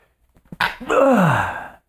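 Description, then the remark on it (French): A single stifled sneeze, fairly loud: a quick intake of breath, a sharp muffled burst, then a strained voiced sound that slides downward and fades within about a second. “Je vais éternuer.”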